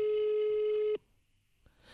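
A single steady telephone ringback tone during an outgoing phone call sounds clearly for about a second, then cuts off into near silence, with a faint soft rustle creeping in at the end.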